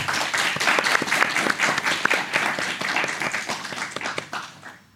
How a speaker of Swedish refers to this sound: Och det tycker jag nästan förtjänar en liten applåd. Verkligen.